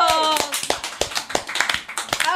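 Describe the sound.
A round of hand clapping: a quick, uneven series of sharp, crisp claps lasting a couple of seconds, with a voice briefly audible over the opening claps.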